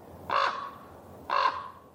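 A raven calls twice, about a second apart: two harsh, hoarse croaks, each short and rough, clear against a quiet background.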